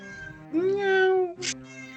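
A cat named Biné, in São Luís, gives one drawn-out, rising-then-falling meow, followed by a short breathy sound and a lower, softer vocal tail. No one speaks.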